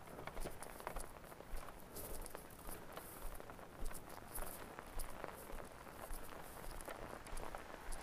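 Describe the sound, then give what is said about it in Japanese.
Steady outdoor rain patters across the surface on a very cold day while footsteps crunch along at a regular walking pace, both continuous with no voices. “この雨もそのうち雪に変わるんでしょうか。”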